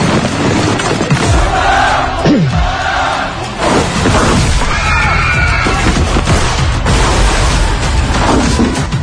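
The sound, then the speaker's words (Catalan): Loud, chaotic action-scene audio from a Korean spy film: dense bursts of gunfire and booming impacts pile up over a constant roar, with falling whooshes and crashes, continuous for the whole stretch. “Molts trets, moltes persecucions.”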